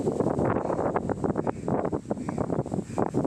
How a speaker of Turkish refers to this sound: Erzurum'da hafta içi etkili olan şiddetli rüzgarda şemsiyeyle havalanan bir vatandaşın görüntüsü takıldı kameralara